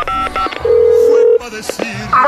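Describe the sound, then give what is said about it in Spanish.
A phone number is dialed by a man drinking mezcal in the bar La Cueva del Peludo: a quick run of short electronic keypad beeps, then one steady mid-pitched tone held for under a second, followed by a few more brief tones. “Eh, a ver, déjale marco a esta, hombre.”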